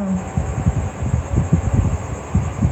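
A train rolls along a railway with a steady, rhythmic low clatter and rumble, moderately loud, with no voices.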